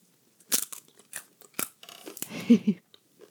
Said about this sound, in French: Vous pouvez manger comme vous voulez. Ça croque.